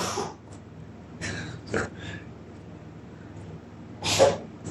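A cat choking and hacking, with several short, harsh, wheezy bursts spread unevenly over a few seconds. The last spasm is the loudest. No one speaks.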